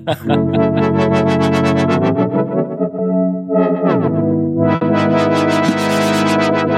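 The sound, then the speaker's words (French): A Korg Minilogue analog synthesizer plays its Flutterpad sound: loud sustained chords with a rapid fluttering pulse. It dips briefly midway and swells back in brightly, with no voices. “ouais, ça fait vraiment les vieux synthés analogues quoi.”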